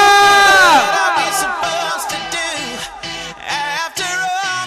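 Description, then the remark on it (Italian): A concert crowd in Padova cheers loudly, a dense wall of high-pitched screams and whoops that swells at the start, then keeps going in wavering, overlapping shouts for several seconds. “Vorrei sentire Padova!”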